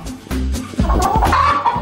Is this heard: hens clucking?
yes